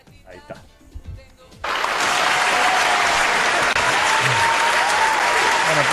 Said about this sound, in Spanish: Bueno, aplausos, por favor.